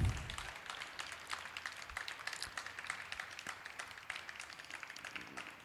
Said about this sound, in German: Er braucht etwas mehr Applaus.